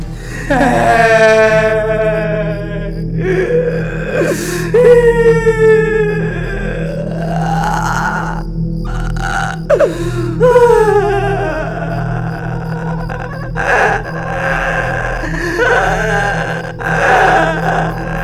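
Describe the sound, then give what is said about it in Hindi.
A woman cries loudly in the dark in a forest, with long wailing sobs that rise and fall in pitch, repeated over and over above a steady low hum; her crying echoes through the whole forest. “लेकिन वजाय कुछ बोलने के वो औरत बुरी तरह से रोना शुरू कर देती है”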